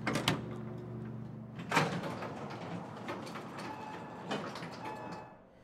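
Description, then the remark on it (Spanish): The automatic sliding door of a hospital intensive care unit hums and whirs open with a mechanical glide, joined by brief clunks and a steady tonal beep-like hum, with no one speaking. “Todo el cuidado del mundo es poco a la hora de acercarme a la puerta de la UCI.”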